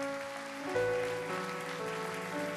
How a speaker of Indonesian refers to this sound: Kita berikan tepuk tangan buat Tuhan.